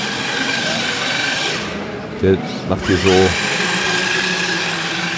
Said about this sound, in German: sind im Moment hier mehrere ziemlich schnelle, ferngesteuerte Autos, die hier die Fläche vor diesen Stapelstühlen äh, nutzen und hier ziemliche Kapriolen drehen